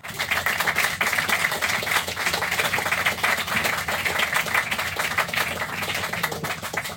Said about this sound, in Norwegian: Tusen takk eh, skal du ha, Monica. En applaus til Monica.